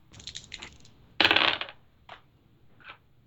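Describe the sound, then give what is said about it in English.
Dice clatter across a hard tabletop for a psychology roll in a tabletop game: a rattling shake, then a loud bright tumble around the middle, followed by a couple of softer ticks as they settle, landing on 91. Clear, with no talking. “That's a 91. Okay. You, yeah. Uh, I hate this dice.”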